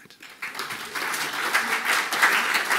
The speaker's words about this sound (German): Applaus